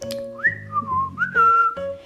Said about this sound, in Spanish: Pirata Alegría, desde la tormenta, estaba silbando